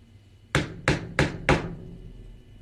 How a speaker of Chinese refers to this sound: 有人敲门。天哪，有人敲门！谁敲门？啊？谁在敲门啊？